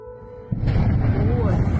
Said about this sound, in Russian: В социальных сетях появились видеозаписи, на которых виден сильный взрыв в центре города.